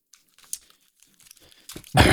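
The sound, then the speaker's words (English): A paper towel crinkles and rustles in scattered soft bursts, then is ripped off in one loud, sharp tear at the end, as it is set out to catch fluids from a mouse pad. “I'm setting out uh, a paper towel so as to catch any fluids from my double XL mouse pad.”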